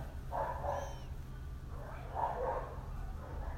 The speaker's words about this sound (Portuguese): Tipo, um cachorro deve estar tá latindo porque apareceu um filho da puta em frente de uma casa. Aí tá o bairro todo latindo.